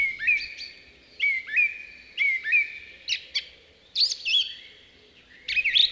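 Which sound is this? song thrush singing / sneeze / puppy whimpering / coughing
song thrush singing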